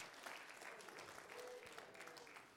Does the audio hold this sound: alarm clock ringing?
no